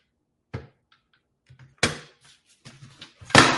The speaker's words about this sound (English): Knocking the tree over.